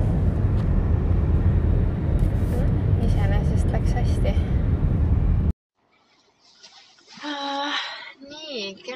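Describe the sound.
A loud, steady roar of a car engine in sport mode accelerating hard from zero to 100 on a snowy side road, with rising whine tones, then a sudden drop to near quiet followed by voices and laughter.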